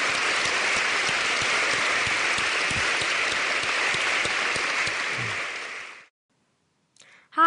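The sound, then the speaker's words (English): A crowd at a PostSecret event applauds steadily for about six seconds, thanking people who shared secrets at the microphone; the dense clapping then stops abruptly, followed by a brief silence and the start of a voice. “Let's just take a minute and thank the people who came to the microphone and exposed so much of themselves hmm.”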